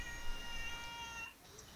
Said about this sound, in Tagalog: Parang baka mamaya magmeow yung pusa namin. Okay lang yan.